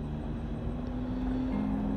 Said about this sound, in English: I'm sure you can hear that sound of the train in the background. I'm just sitting outside, and that train always reminds me of all the times we met at that whistle stop cafe right next to that railroad track.